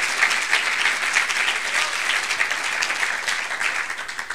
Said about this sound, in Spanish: Ah, gloria a Dios. Debo un aplauso al Señor.